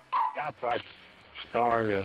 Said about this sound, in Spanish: Este es un hombre habla mientras los pájaros cantan y los perros ladran.